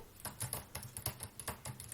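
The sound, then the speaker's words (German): Soft, quick keystrokes on a flat chiclet-style Mac laptop keyboard, a steady run of light clicks about four per second, fairly quiet, with no voices. “Das so eine typische Mac. Die Schickle-Tasten oder Kaugummi-Tasten, wie man sie auch nennt.”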